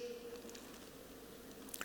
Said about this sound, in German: So wie wir diese Pflanze hier mit Wasser gießen und sie der Sonne aussetzen, so musst du auch die Freude in deinem Leben gießen mit dem Wort Gottes, mit der Beziehung zu Jesus, durch Gebet.